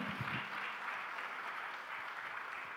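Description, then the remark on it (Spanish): An audience applauds loudly and steadily, a dense wash of many hands clapping together with no break for the whole stretch, a few brief voices mixed in at the start. “Vamos, yo quiero que el pueblo de Dios le dé el aplauso fuerte.”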